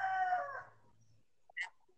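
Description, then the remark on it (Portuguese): A rooster's crow, already underway, trails off over the first half second against a low hum, followed by a few brief, sharp chirping calls near the end. “Tem um galo. Tem um galo.”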